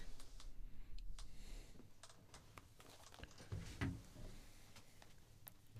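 Irregular, quick clicking of keys on a computer keyboard, moderately quiet, with a few heavier thumps of keys or the desk mixed in. No one speaks.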